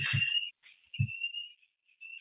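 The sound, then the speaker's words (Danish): An alarm in an office building gives off a steady, shrill electronic tone, fairly faint. It drones almost without pause, broken by a few brief gaps, with a couple of low thumps near the start. “Der starter en alarm et sted i min øh, kontorhus her.”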